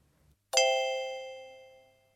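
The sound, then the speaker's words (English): One sharp metallic clang of something hitting a treasure chest in a pit rings out after a short quiet pause, its bright, bell-like tone sustaining and slowly fading over about a second and a half, with no voices. “A bang, a clang. What has he hit? A treasure chest.”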